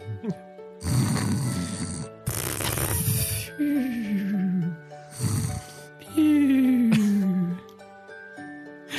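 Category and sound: vocal imitation, imitated snoring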